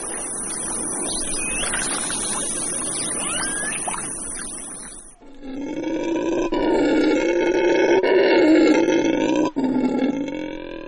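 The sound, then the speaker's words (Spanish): A herd of peccaries grunts and squeals loudly and continuously, a dense chorus of rough animal calls that bursts in partway through after a few seconds of forest ambience with chirping birds. “De repente, una manada de báquiros y más báquiros rodearon al cuñado de Maichak y le quitaron la maraca.”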